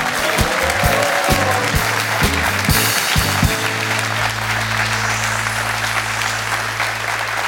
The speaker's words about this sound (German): hat den Applaus, das Applausduell gewonnen.